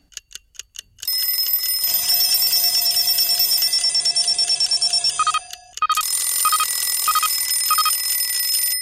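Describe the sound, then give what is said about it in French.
A few quick ticks give way to loud mechanical alarm clock bells, ten alarm clocks ringing continuously, several overlapping; after a brief dip, another bright ringing bursts in and keeps going. No voices. “Personne n'a entendu les dix réveils sonner.”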